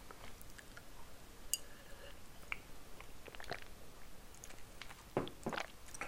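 Wet chewing and slurping of Peyang Goku Gekikara Tantan spicy instant cup noodles, with scattered soft clicks and squishy bites, a louder cluster of chews near the end; no talking.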